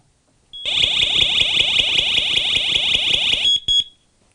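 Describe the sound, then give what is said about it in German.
A water leak sensor alarm, set off by touching its sensors to a finger, sounds a loud, piercing high-pitched tone with a rapid pulsing texture for about three seconds, then cuts out in two brief final bursts. No one speaks. “wenn ich jetzt hier mit diesen Sensoren auf meinen Finger gehe, dann fängt das schon an zu signalisieren.”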